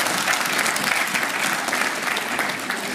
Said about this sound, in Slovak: Môžete sa zatleskať